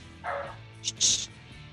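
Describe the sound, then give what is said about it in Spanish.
A frightened pet dog barks a few times in quick succession, a lower yelp followed by two sharper, higher-pitched barks, moderately loud over a faint background hum. “Y eso es mi perro que sigue ladrando.”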